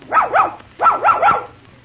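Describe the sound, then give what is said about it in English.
A puppy barks in quick, high-pitched yips, two then three in rapid succession, fairly loud with no other sounds around them. “I said Pappy, not Puppy.”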